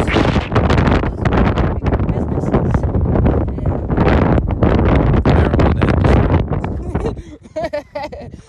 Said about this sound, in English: exactly, because we on our hike and smoke, so we're definitely on cloud nine, enjoying this windy weather.